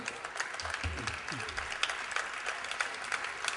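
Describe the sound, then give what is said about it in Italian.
An audience applauds steadily, a dense wash of many hands clapping at a moderate level throughout, with a few low murmuring voices underneath near the start. “Basta così, altrimenti rimaniamo senza applausi per il finale.”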